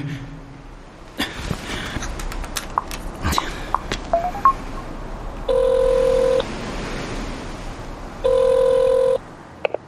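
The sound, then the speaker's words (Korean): A rapid series of short button taps as a phone number is dialed, followed by two long, steady ringing tones separated by a pause. No one speaks. “전화 기다리고 있었어요”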